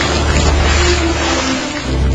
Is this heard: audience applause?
no